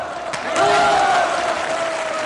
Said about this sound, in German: Wird sehr viel gejubelt in dem Film und sehr viel Beifall geklatscht